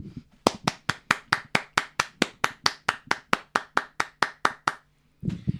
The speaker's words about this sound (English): So, for anybody who's not in England doesn't know, uh, eight o'clock, everybody was going to stop and clap their hands for the NHS and for the magnificent work they're doing right now